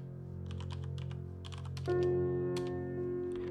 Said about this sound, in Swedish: Fingrarna flög fram över tangenterna och ett nytt utkast började ta form.